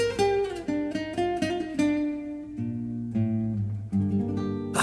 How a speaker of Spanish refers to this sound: esta canción nos recuerda que … pertenece al disco … y suena así